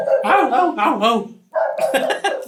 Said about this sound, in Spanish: lo más seguro es que se estén escuchando seguido los perros